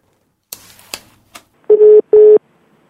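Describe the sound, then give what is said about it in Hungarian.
A few sharp clicks of a telephone dialing a number in Miami, followed by two short, steady buzzing bursts of a ringing tone on the line, loud, with no one speaking. “Oda is kéne telefonálnom mondjuk.”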